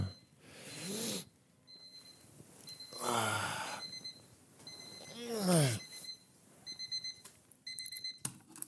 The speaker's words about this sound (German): Und das ist der Wecker. Und das ist der hektische Wecker.